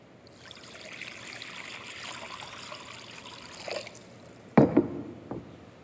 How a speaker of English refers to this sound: And then he, he poured water into a basin.